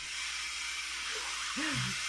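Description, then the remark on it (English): A washing machine runs during repairs with a steady, fairly loud whooshing hum, and a brief rising-and-falling motor whine swells up near the end. “Hello, that is my washing machine.”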